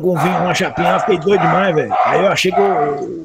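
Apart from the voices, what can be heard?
dog barking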